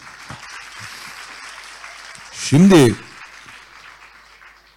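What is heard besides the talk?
audience applause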